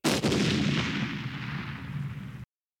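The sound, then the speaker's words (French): A single loud explosion sound effect from a Nintendo 64 video game, resembling a thunderclap: a sharp, booming blast that rolls into a thick, rumbling tail for about two seconds before cutting off abruptly. No voices. “On dirait un coup de tonnerre, mais en réalité, il s'agit d'un bruit d'explosion qu'on trouve dans le jeu culte GoldenEye sur Nintendo 64”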